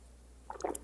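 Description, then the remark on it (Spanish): A few quick, wet flicks of water from a fingertip, soft little splashes clustered in under half a second, fairly quiet, with no one talking. “O agua con el dedo así.”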